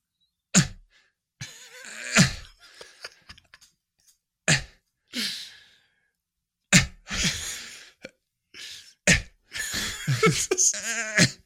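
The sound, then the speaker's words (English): A voice imitates the straining grunts of a man defecating on a toilet in a film scene: a run of short, forceful, breathy vocal bursts separated by pauses, fairly loud, building into a longer strained stretch at the end. “it's just grunting and, and then just like Michael Paré and all, all these people are just waiting for this guy to shit something out and then he shits it out flushes the toilet and then just throws it to Michael Paré, and it's just gross.”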